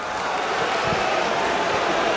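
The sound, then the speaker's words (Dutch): A football stadium crowd roars after a goal that makes it 0-3 after 35 minutes in a match against Roda. It is a dense, unbroken wash of noise that holds at a steady, loud level throughout, with no single voice standing out. “En het publiek moord nog harder dan zojuist.”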